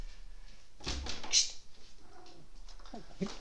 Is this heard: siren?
no